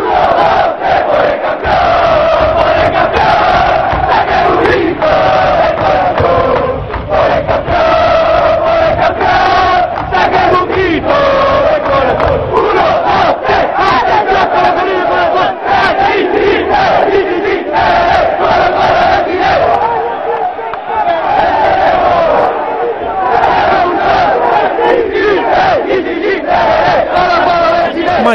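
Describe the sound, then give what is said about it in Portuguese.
A large crowd of Colo-Colo football supporters, the Garra Blanca, its main supporters' group, sings a club chant in unison, loud and continuous, with rhythmic swells of massed voices for the whole stretch. “Ele, ele, mostra quando a garra blanca, que é a torcida, a principal torcida do Colo-Colo chega todo mundo para e escuta e, e se junta na, nessa festa.”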